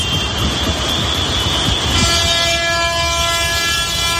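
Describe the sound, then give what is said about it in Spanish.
A long column of tractors rumbles steadily along a major main avenue into Badajoz, Spain, during farmers' tractor protests, a loud, continuous low engine roar, and partway through a sustained horn blares and holds over the din. “Es el sonido de una larga columna de tractores accediendo por una importante avenida principal de Badajoz.”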